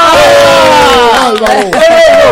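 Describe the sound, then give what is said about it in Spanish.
A loud studio audience on the show Mañanero 2.0 cheers and whoops for a guest in sustained, overlapping voices, with a few scattered claps breaking through near the end. The sound is continuous for the whole moment. “¡Un aplauso!”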